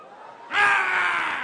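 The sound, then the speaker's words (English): A man lets out a loud, sustained yell that bursts in abruptly after a moment of quieter background noise and holds strong for about a second, as he rides a bike fast past houses to scare off big German police dogs. “I'd get that bike going as fast as I could, and I'd start yelling.”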